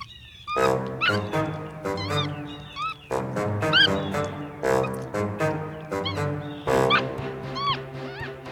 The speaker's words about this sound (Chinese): 哦，原来是树上有一只被网子困住的猴子。它不停地叫着，只是那叫声越来越虚弱，看样子也是被困在网子里面很久很久了。